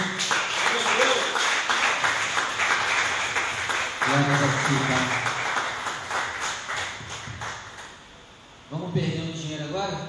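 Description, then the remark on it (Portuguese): A church audience claps together in sustained, dense applause for the Lord for several seconds, with voices calling out over it, briefly easing near the end before a voice speaks again. “E graças a Deus, vamos aplaudir o Senhor.”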